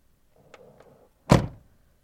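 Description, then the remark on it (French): A car door shuts with a heavy, solid thump after a couple of faint mechanical clicks and a low rumble, the slam ringing out briefly before fading. No one speaks. “Je ferme la portière de ma en refaisant nos existences, nos portraits croisés et une foule de sentiments amers me traverse.”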